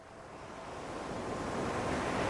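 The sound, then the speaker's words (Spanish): Ocean waves wash onto a sandy beach in a steady, broad rush of surf that swells gradually louder, with no voices, just continuous churning water. “Si estás nervioso, enfadado o triste, puedes venir aquí y dejar que las olas te ayuden a relajarte para sentirte mejor.”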